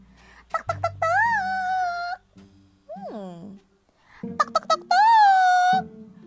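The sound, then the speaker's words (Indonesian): Two quick sets of three sharp knocks on the door of an elephant's house, each followed by a long, loud, wavering trumpet-like wail, with a shorter sliding cry in between. “Kita ketuk ya pintunya.”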